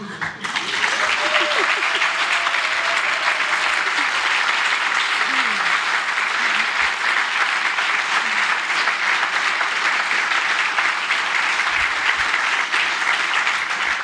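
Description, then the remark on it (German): Steady audience applause, a dense wash of many hands clapping at an even loudness for about fourteen seconds, with faint voices murmuring underneath. “Nein, ich gucke jetzt nicht hoch für den Applaus, aber vielleicht doch.”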